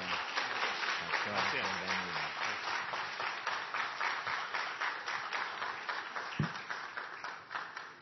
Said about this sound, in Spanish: Venga por favor y predica la palabra en esta noche. Dale un fuerte aplauso y bienvenido.